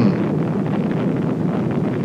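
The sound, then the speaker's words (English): A Titan II rocket lifts off carrying a Gemini capsule, its roar rumbling steadily, a dense, loud low-pitched thunder with a rushing wind-like texture that holds constant without pause. No one speaks over it. “And a perfect liftoff.”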